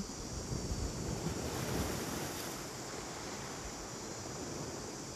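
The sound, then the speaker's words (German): Ocean waves wash in and out and break on the beach with a steady, broad roar, swelling briefly before settling into a continuous surf hiss, with wind buffeting the microphone. “Und die Welle kommt rein und die Welle kommt raus.”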